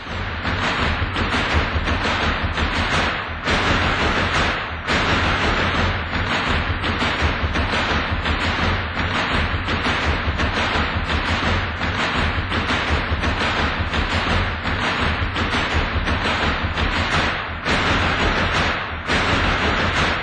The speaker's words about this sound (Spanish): Escuchamos el zapateo de la Compañía Nacional de Danza. Si cierras los ojos, puedes inclusive imaginarte en un salón de espejos y piso de duela e incluso sentir cómo tu ritmo cardíaco aumenta junto con el ritmo de tu respiración.